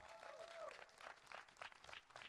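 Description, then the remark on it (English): An audience claps during a sermon in a soft, steady patter of many hands, the claps pulsing in a loose rhythm, with a brief high vocal whoop near the start. “This is hard preaching, so I appreciate you clapping.”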